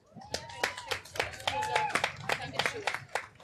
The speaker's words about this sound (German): Äh, ich würde sagen, bitte nochmal Applaus,